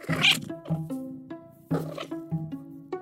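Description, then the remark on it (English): An indoor cat in Toronto mutters at birds through a window screen in a run of short, chirpy bursts, about five of them in quick, uneven succession, with brief pauses between and no talking. “And I don't want her to kill all the birds that she likes to mutter at through the window screen.”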